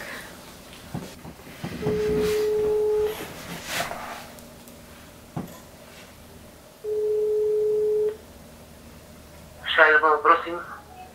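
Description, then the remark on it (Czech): A telephone ringback tone sounds twice on a call placed during a quiz game, each steady electronic burst lasting about a second with a long pause between, followed by a short warbling electronic chirp as the line connects. “tak využiju telefonát nepříteli. Dobře. tak zavoláme Pajovi.”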